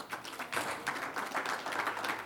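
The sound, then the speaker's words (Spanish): An audience at a conference breaks into steady applause for the husbands who supported their wives in attending, many hands clapping together in a dense, continuous patter with no voices over it, holding at an even level throughout. “Vamos a darle un aplauso todos.”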